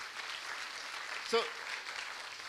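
An audience applauds for the Lord in a steady, dense wash of clapping that fills the whole moment, with a brief vocal exclamation rising over it midway through.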